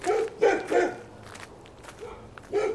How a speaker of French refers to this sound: Les chiens des SS se jettent sur elles.